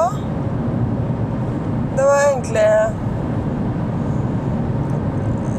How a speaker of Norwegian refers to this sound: Og så sitter vi nå i bilen på vei tilbake